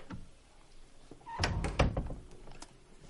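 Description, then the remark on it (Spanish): A bedroom door swings shut with a solid thump and a short rattle of the latch, after a quiet room tone, with no voices. “Vuelve a la habitación pero retrocede y cierra la puerta.”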